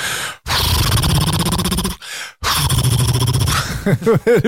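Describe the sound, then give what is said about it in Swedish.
A voice loudly mimics a revving motorcycle engine, sustained buzzing bursts with a short gap between them, ending in a few rising and falling vocal swoops. “doff, doff. Sådana motorer. Ja, ja. Så när du gasar så”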